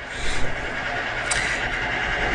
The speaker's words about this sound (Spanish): Entonces, hoy toca inauguración de la Luman.tv con martillo mecánico o neumático.